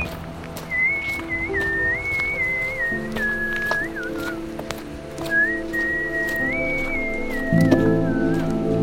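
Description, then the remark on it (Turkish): Someone whistles a wandering melody in clear, sustained notes while walking to a car, over a steady backdrop of other sounds, with a brief pause midway before the tune resumes. “Dudaklarıma bir ıslık yerleştirip aracıma yürüdüm.”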